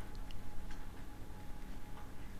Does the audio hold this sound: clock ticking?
yes